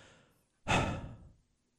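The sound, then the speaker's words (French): A person audibly imitates a speaker catching his breath during a speech: a faint inhale, a short pause, then one loud, breathy exhalation like a deep sigh lasting under a second, with no speech. “quand, il parle, il reprend souvent son souffle comme souvent, je vous dirais à chaque minute, là, ils reprennent une respiration comme.”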